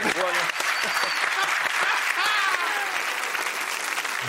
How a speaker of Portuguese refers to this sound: Olha, eu não sou nada Flamengo, mas tive que aplaudir.